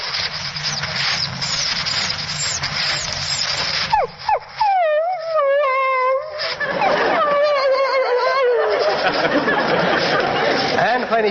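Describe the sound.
A person mimics a dog that feels left behind and wants to go along with its master, letting out a series of high, wavering whimpers and whines that slide into a drawn-out howl, following several seconds of noisy crowd-like rumble.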